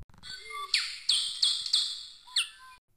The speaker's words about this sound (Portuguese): todo tipo de passarinho no céu.